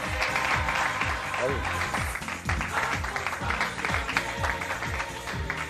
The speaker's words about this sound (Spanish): A ver, Ay, Tiene un sonido, atención. Aplausos, hay aplausos.